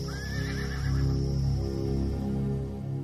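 A horse whinnies with a quavering, wavering call near the start, then settles into a low, steady rumble of movement for the rest of the short stretch.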